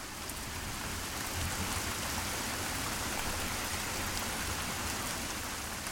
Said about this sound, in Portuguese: E aí a gente vai voltar à chuva. A chuva não vai ser mais aquele barulho ensurdecedor que você precisa se isolar do mundo, que você precisa entrar em negação.